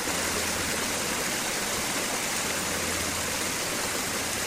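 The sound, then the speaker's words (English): Steady, continuous rush of water flowing and splashing, like a fountain spilling over stone, fairly loud with no voices; a water feature in the Moore Center's meditation garden, flowing over quotes from Harry T. Moore and Martin Luther King Jr. “Water flows over quotes from Harry T. Moore and Martin Luther King Jr.”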